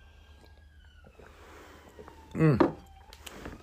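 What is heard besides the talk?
ambulance siren passing by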